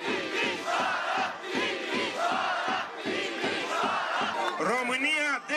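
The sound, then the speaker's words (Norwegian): A large crowd of street demonstrators in Romania chants in unison, loud rhythmic shouts repeating steadily in a regular beat, with many voices blending into a dense roar and rising cries toward the end. “Demonstrasjonstoga ble derfor kalla den andre revolusjonen.”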